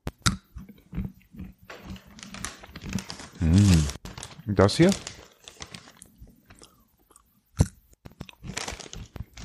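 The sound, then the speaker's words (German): Crisp crunching and wet chewing of a cashew nut, a series of irregular bites and grinding chews, with a few brief spoken words around it. “Da esse ich jetzt eine Nuss. Willst du lieber, dass ich eine Cashew oder eine Pekanuss esse?”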